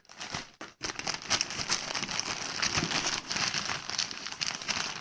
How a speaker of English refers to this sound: I thought I'd do a little unboxing. I believe I know what this is, and it's not RPG related, but it is a game.